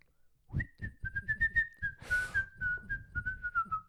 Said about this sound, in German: …, pfeif du mal.